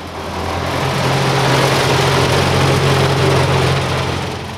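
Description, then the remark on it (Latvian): A tractor (a 15-ton, high-power front loader) in Jēkabpils municipality on a winter night, 24 February 2021, runs steadily: a loud low droning rumble with a constant throb and broad mechanical noise, holding an even level throughout with no voices. “Naktī uz 24. februāri Jēkabpils novadā ierūcis traktors.”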